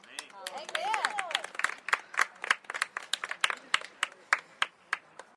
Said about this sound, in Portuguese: Palmas. Palmas.